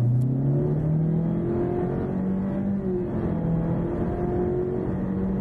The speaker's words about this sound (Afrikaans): Die outomatiese CVT skep sewe kunsmatige ratte wanneer jy vet gee. Hy darm spanne agter die stuur waarmee jy self 'n rat kan kies en 'n sportmodus wat die toere hoor.